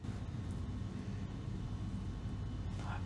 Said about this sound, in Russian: а это работает холодильник. Мне кажется, даже не слышно будет.